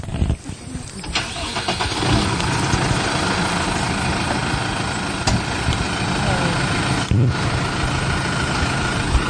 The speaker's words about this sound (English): Okay, we're gonna go over here. We're gonna the tractor's gonna come down here.